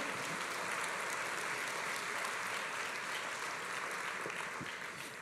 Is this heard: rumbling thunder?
no